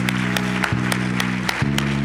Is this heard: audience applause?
yes